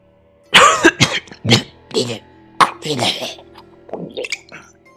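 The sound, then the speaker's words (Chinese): A man coughs in a rough, wet fit: a quick string of harsh bursts, then a few weaker, gurgling coughs trailing off, fairly loud with no talking. “此时，此时他咳嗽了。”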